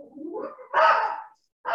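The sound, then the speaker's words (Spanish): A small female dog whines briefly, then lets out a couple of sharp, high-pitched barks, with a short pause between them and no talking. “Perdón por mi perrita.”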